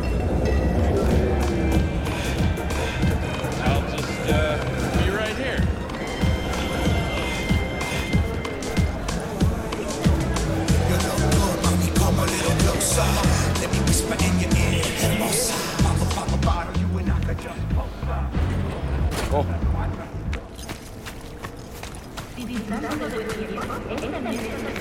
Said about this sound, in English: um and just like the the balance i think this game does a really good job of like making sure the background conversations and stuff are there and present but not overwhelming and maybe just a little bit distracting in like a very very realistic way